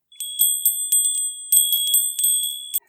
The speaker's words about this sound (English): Bells rang as the door opened to announce me.